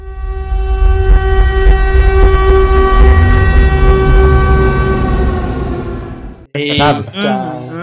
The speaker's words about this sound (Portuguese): Eles, antes de aparecer essa parte, eles colocaram aquela sirene de toque de recolher de bombardeiro.